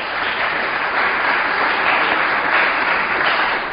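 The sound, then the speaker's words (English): An audience applauds in a steady, dense wash of many hands clapping, sustained at an even loudness for about four seconds with no voices over it. “So we have quite a few, so let, us hold our applause until we get to the end.”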